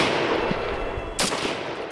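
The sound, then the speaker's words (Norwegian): A single sharp blast from an ancient blunderbuss, fired with its muzzle held less than 15 cm from a forehead, cracks out against a steady rumbling, noisy background, then quickly fades. “Du får svarene dine nede i prins Yamas dødsrike, sa Watang mens han løftet den eldgamle muskedunderen og holdt munningen mindre enn 15 cm fra pannen Jeg følte hodet mitt fly av, jeg så gnister, jeg hørte noe som lignet en eksplosjon og luktet krutt.”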